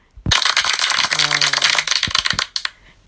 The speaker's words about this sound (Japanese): セルフ拍手です。